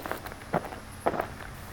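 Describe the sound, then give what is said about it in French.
Footsteps of someone hitchhiking along the edge of a one-way road on 13 July 2020: four soft, evenly spaced steps in a steady, unhurried rhythm over a low, constant background hum, with no voices. “Ça fait bien 20 minutes que je marche au bord de cette route à sens unique, direction je ne sais où.”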